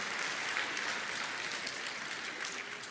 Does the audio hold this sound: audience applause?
yes